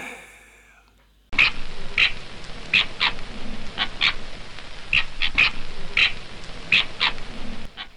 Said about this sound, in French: Ah non, ça c'est un renard. Un renard du désert. Un fenec, donc.